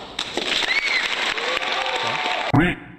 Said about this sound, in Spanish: Y buenísimo, te aplaudo. Déjame darte un aplauso antes de que llegas yo. Ahí está.